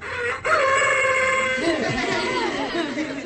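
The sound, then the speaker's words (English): A solar-powered plastic toy rooster, run by a small 2 by 4 inch photovoltaic panel that changes light into electricity, crows with a loud, sustained, slightly electronic cock-a-doodle-doo, its harmonic call wavering and warbling over a few seconds, with faint background noise. “In this case, it makes a plastic rooster crow.”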